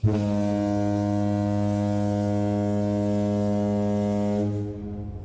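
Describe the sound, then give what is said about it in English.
A single loud, deep foghorn blast, sounded as a spoiler warning, holds steady for over four seconds, rich and buzzing with harmonics, then cuts off with a brief fading tail. No voices. “So, um, all right, let's let that horn ring out loud and proud, and uh, we can start talking about this epic game.”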